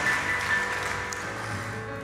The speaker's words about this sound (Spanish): Dale un aplauso al Señor y ponte sobre tus pies, iglesia.